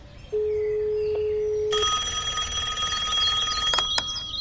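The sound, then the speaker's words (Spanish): A steady dial tone gives way to a loud, buzzing electronic telephone ring as a call is placed to ask a question; it trills for a couple of seconds before two sharp clicks cut it off, as if the call is picked up. “¿Qué tal si llamamos y preguntamos?”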